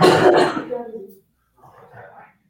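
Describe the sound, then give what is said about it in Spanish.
A son coughs in the background as he comes in through the door, a harsh, throaty cough bursting out for about a second, followed by a short pause and a fainter, muffled rasp, like someone clearing their throat. “entró, entró mi hijo por la puerta y tosió.”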